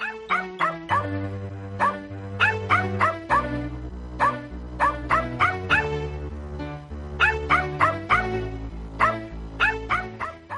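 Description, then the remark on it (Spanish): Short, bright dog barks come in quick repeated bursts, fairly loud, riding over a steady musical backing with sustained low notes throughout. “Los perritos.”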